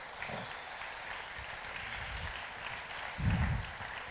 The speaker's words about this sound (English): Let's applaud the Lord Jesus Christ for those guys.